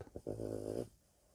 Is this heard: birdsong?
no